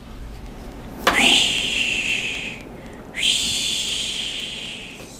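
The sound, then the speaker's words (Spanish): A child's voice imitates the sea with two long, breathy shushing hisses, each lasting over a second with a short pause between, fairly soft, like waves washing in. “¿El mar sonaba bonito? Sí. ¿Cómo?”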